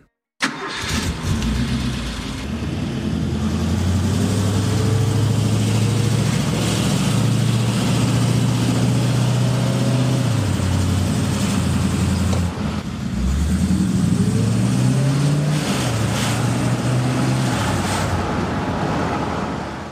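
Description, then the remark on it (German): A V8 sports car engine roars continuously during a short drive, its deep rumble rising and falling as it revs through gears, with wind rush over a steady, loud drone. “Deshalb habe ich mir die Gelegenheit nicht nehmen lassen, da während der kleinen Ausfahrt mit Christian mal ganz kurz und improvisiert mein Mikrofon aus dem Auto zu halten.”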